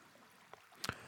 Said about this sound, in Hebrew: נשים לנו קצת צלילים נעימים. קצת של אה, מים זורמים, כמו המים שככה עוברים לנו בגוף.